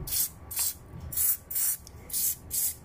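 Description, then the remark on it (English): Short hissing bursts of an aerosol pain relief spray applied to an arm with a sore right elbow from playing cricket, about six quick squirts in an uneven rhythm, with no talking. “I'm actually applying a spray on my arm because it's hurting because I played a lot of cricket today and my right elbow is in a little pain”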